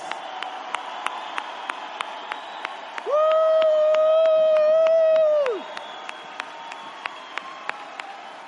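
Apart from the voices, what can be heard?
audience applause and cheering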